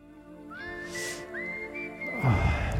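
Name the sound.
whistled song melody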